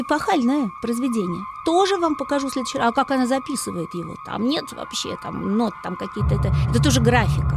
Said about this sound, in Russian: Потому что вы слышите, это же нет высоты. Как вот сейчас вот гул вот этот записать?